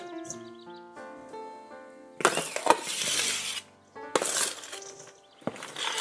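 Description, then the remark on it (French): Lentils, cooled a little, are poured into a mixing bowl in two rushing bursts, a dense rattling hiss with bright clinking, while the bowl rings with sustained metallic tones between the pours. “Je viens verser toutes mes lentilles.”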